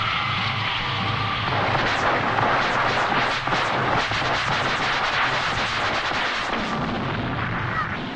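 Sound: explosion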